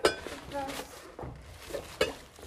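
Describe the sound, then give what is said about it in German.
Air glugs and bubbles out of a large upturned glass held underwater as a diving bell, giving a few irregular watery bursts with short, hollow chirps and soft sloshing between them. “Ja, da kam jetzt richtig viel Luft raus.”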